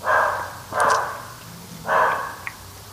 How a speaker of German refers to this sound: ist unser Hund